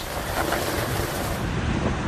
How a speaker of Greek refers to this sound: Σφοδρή καταιγίδα καταστρέφει τα πάντα στο πέρασμά τη στη Μαγιόρκα τη Ισπανία